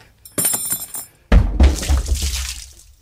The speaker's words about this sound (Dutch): hoofd wordt nu op de mengtafel als een rauw ei kapot geslagen.